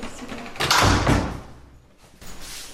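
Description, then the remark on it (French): The backstage door of a spa in Normandy opens with a broad, scraping whoosh, falls quiet for a moment, then moves again more softly as it swings shut. No one speaks. “On va rentrer directement par la porte des coulisses.”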